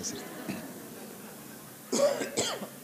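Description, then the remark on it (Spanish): Two quick, harsh coughs from a person, one right after the other, breaking a quiet stretch near the end. “Ya me dio tos.”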